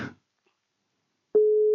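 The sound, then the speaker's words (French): After a moment of silence, a loud, steady telephone ringback tone starts as a call is dialed, the first ring, holding one pure pitch to the end. A brief trailing bit of noise fades out at the very start. “Première sonnerie chez Mehdi”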